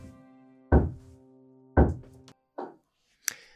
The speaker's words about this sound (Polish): Kto tam puka, to za chwileczkę